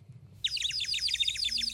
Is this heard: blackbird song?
yes